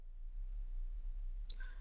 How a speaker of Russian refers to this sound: Задавайте вопрос, подкидывайте монетку и смотрите, каков он будет.